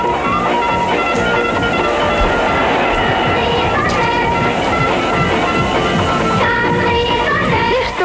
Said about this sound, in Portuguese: O som deste anúncio é péssimo, mas à laia de ilustração e para recordarmos os bons velhos tempos, podemos ouvir, só, só para ouvirmos a música do Caprichone. Mítica.